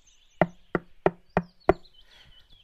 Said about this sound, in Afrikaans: Na 'n ruk is hy terug en hy klop weer aan die deur.